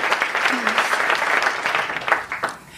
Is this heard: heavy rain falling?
no